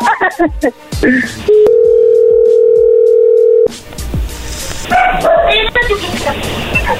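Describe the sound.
A phone line goes dead and a loud, steady dial tone hums for about two seconds, one unbroken mid-pitched note, with voices and bustling background sounds before and after it.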